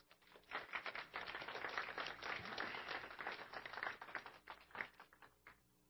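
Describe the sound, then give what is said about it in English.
An audience applauds two people being called up to share. The clapping is dense and steady, holding for several seconds before thinning into a few scattered claps and tapering off. “So we give them a round of applause.”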